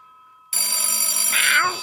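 A telephone bell starts ringing abruptly and keeps up a loud, continuous metallic trill with bright harmonics for over a second before easing off slightly at the end.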